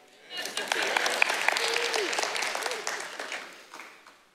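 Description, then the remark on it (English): Audience applause breaks out, a dense wash of many hands clapping that swells quickly, holds steady for several seconds, then tapers off, with faint voices mixed in underneath. “No applause for that?”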